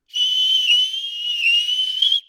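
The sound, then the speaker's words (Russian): Birds whistling derisively: a shrill, steady whistle holds one high pitch for about two seconds, wavering slightly and dipping briefly midway before cutting off. No voices accompany it. “Некоторым птицам эта песня показалась оскорбительной и они засвистали чижа.”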